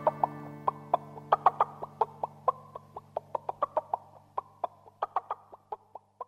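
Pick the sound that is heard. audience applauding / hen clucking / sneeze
hen clucking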